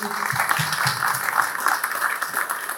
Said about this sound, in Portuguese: Eu acho que nada mais justo do que essa homenagem, é, mas fica aqui o nosso agradecimento. Eu queria que a gente pudesse aplaudir mais uma vez eles, pessoal